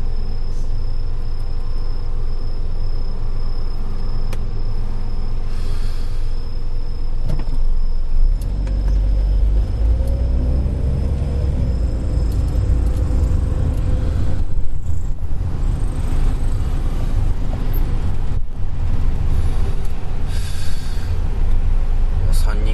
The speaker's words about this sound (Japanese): 車多いねんけどな新生川橋交差点まあいつも通りでも南の方から来る車は多いけど新神戸の方に上がっていく車やねん新神戸の方に上がっていくか二国を右か左かどっちかに曲がる感じの